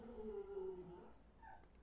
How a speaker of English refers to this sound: Oh, excuse that. That's my dog freaking out. Uh, probably trying to attack a squirrel through the patio window.